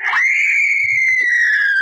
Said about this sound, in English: Who was that? I don't know. It came from this room. It couldn't have. I tell you, that scream came from this room.